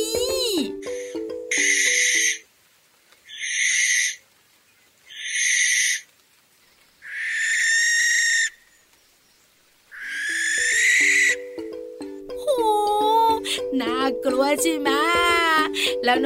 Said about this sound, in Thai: เสียงเมื่อสักครู่เนี้ยนกแสกนี่พี่วาน ถูกตั้งแล้วล่ะค่ะ นกแสกนะคะ